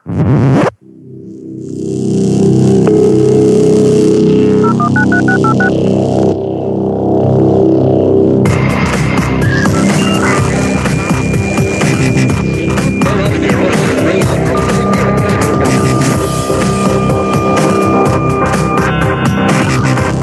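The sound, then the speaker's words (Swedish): A loud electronic jingle full of dial-up modem–like noises: droning tones, chirps and sustained beeps, then a shift into a dense burst of hissing, crackling static with steady whistling pitches, with no voices. “ett modem. Ja, det var eh, allehanda ljud där kan man säga.”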